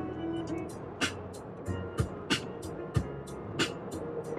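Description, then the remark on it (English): A racing car engine drones steadily, punctuated by sharp, crackling bursts roughly every half second to second, like throttle blips or exhaust pops. “This car's got way too much fire, gents.”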